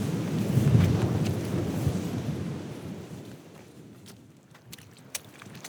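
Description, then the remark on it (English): Low, rumbling breeze buffets steadily outdoors at Slater's Bridge, a clapper bridge, strongest in the first seconds and then easing, with a few sharp clicks and taps toward the end. No one speaks. “The breeze hasn't let up yet, but we've come to a very iconic spot which draws the crowds year on year, month on month.”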